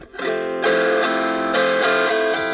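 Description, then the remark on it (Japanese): A distorted electric guitar played through a small guitar amp, turned up loud to get the distortion, strums loud, buzzing, sustained chords, restruck roughly every half second with no talking over it. “でやっぱねちっちゃいギターギターアンプってねあのその音を大きくしないとその歪んだ音にならないですよね。”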